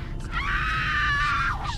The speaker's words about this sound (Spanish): Escuché los gritos de las que fallaron y no fueron aceptados.